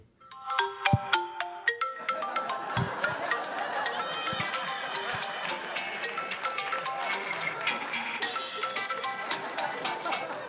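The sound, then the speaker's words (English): A smartphone ringtone plays a bright, busy electronic melody with a steady rhythmic beat, loud, running continuously for about ten seconds with no talking over it. “and this is my dad's favorite ringtone.”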